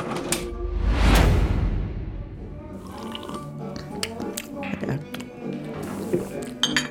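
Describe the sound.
Busy service station café clatter: dishes and cutlery clink and knock in quick irregular bursts over a low rumbling background, with a louder swelling whoosh early on and indistinct voices murmuring underneath.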